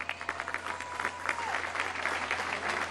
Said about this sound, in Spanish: Nuestros paisanos migrantes, un aplauso para ellos.